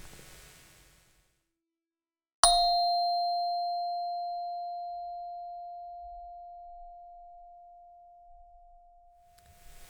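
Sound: meditation bell ringing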